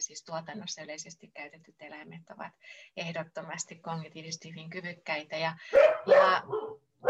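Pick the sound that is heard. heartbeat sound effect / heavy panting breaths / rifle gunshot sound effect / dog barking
dog barking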